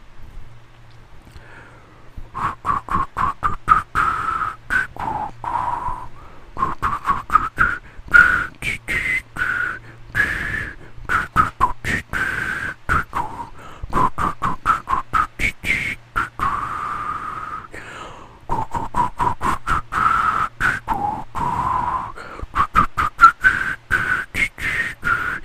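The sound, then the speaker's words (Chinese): Breathy, unsteady whistling of a pop melody by someone who says they are very bad at whistling, played as a guess-the-song quiz round, mid-pitched and wavering, with lots of airy hiss between notes. The tune continues for nearly the whole stretch with short gaps, and no voices. “因为我的口哨，我非常不会吹口哨，这是一个自负集团节目，因为我超不会吹口哨，所以呢。你们应该很难听得懂我在吹什么，OK？”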